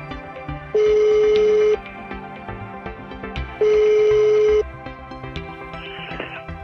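A telephone ringback tone sounds twice as a call is placed to an economics professor, each steady buzzing tone lasting about a second with a pause between, loud and clear over faint background noise.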